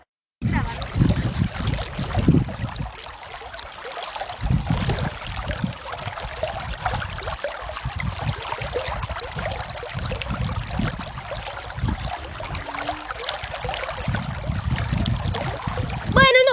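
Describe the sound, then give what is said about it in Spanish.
Water flows steadily for the whole stretch, a continuous rushing, gurgling wash with low churning surges, like a stream or river running past. “Y ahora sí, con el sonido del agua, nos despedimos.”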